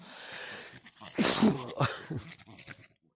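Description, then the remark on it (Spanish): A breathy intake builds into one loud sneeze, the second of two, followed by a short voiced trailing-off and then quiet. No one speaks. “A ver, que los estornudos vienen de dos...”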